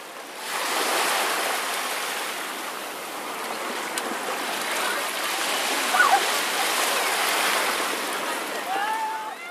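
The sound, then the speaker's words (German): Steady rushing surf washes onto a beach in Italy where a barbecue party is held, swelling and easing in broad hissing waves, with a few faint voices or cries barely surfacing near the end. “Schlussendlich haben wir dann aber das gemacht, was wahrscheinlich jeder eh Großteil macht ein Barbecue, eine Party am Meer, am Strand.”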